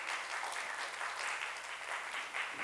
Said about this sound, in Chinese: 阿门，好不好？你大家给自己一个掌声。